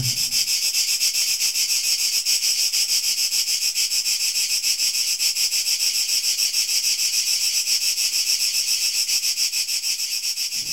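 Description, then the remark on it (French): A steady, continuous chorus of crickets chirping at night in high-pitched pulsing trills, filling the whole stretch without pause, constant in loudness, with no voices. “dédie plusieurs de ses poèmes à un autre insecte, le grillon, dont le chant nocturne berce ses insomnies d'amoureux solitaires”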